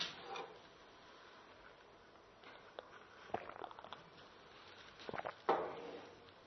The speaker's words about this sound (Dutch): Ja. Even een slokje water.